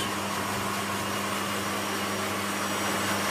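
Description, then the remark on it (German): A loud pet grooming blower, set at the animal's back, roars steadily as it blows air into the fur, a constant rushing whoosh of air with a low motor hum, like a powerful hair dryer or vacuum, with no one speaking. “So, also jetzt haben sie ähm, den Blower angeworfen. Das ist wie, wie ein riesiger Föhn. Also eher wie ein Staubsauger.”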